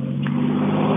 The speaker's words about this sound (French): Alors maintenant c'est le train qui passe. C'est pas mal hein, pour parler de l'impact environnemental des activités humaines. Là, on essaye de se parler et on passe entre un train diesel et un hélicoptère.